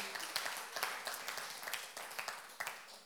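An audience applauds, a dense wash of many hands clapping with sharp individual claps popping out irregularly, steady and moderately loud for the whole stretch with no voices.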